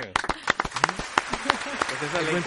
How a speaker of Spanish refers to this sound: Que se ha ganado un aplauso, no se lo ha ganado.